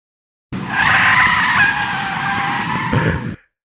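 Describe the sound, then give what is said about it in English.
A loud, sustained braking tire screech sound effect, sharp and high-pitched, lasting nearly three seconds before cutting off abruptly, with no voices over it. “I was a little late with my my trigger finger on that that audio effect.”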